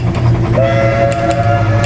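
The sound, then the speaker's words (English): A steam train, engine number 712, rumbles steadily, and after a moment a sustained whistle sounds over the chugging and runs to the end, with no voices present. “Train number second five, engine number 712.”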